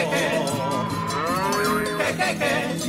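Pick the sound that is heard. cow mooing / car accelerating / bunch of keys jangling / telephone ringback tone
cow mooing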